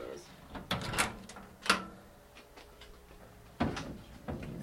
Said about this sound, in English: Can we open some drawers? Can you yeah. show me some yeah. stuff? Sure. Yeah, this might be. Let's see.